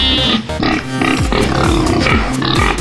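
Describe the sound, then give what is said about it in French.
Loud, dense farmyard noise from cows, sheep and other animals at the 52nd Salon de l'Agriculture agricultural show, with grunting, pig-like squeals and low animal calls overlapping continuously amid constant crowd hubbub from thousands of visitors. “Des vaches, des moutons, de la paille, des agriculteurs, du fromage, des milliers de visiteurs.”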